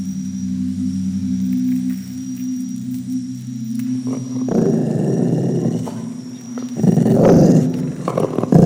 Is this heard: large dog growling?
yes